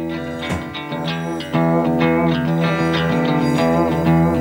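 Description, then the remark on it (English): A crunchy, distorted rock intro with thick, sustained guitar tones. It plays steadily and fairly loud, gets a bit fuller partway through, and has no voices over it. “This is a scary song. It's crunchy.”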